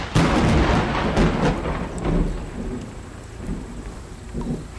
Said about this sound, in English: Well, looks like that storm's about to hit